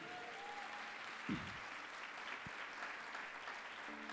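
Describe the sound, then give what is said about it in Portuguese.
An audience at a church service applauds the Lord for the church's strong team, steadily, a dense wash of many hands clapping at an even level throughout, with a brief low thump partway through and no one speaking over it. “Vamos aplaudir o senhor por esse time forte que a gente tem aqui?”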